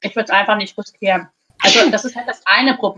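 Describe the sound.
A single sharp, loud sneeze bursts out midway through, between stretches of a man talking in a calm conversational tone.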